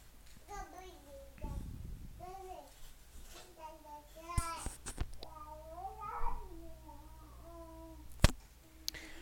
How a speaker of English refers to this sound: Minus all the baby noises in the background, it was pretty much me being as quiet as possible.